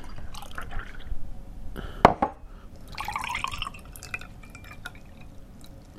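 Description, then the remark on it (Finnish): Cold and hot water pours and splashes into mugs in short bursts, with a sharp ceramic clink partway through and trickling drips between pours; no one speaks. “Siis sehän voi riippua siitä, että kuuma muki jostain syystä soi huonommin, niin, niin vaihdetaan nämä maidot veteen ja kokeillaan uusiksi.”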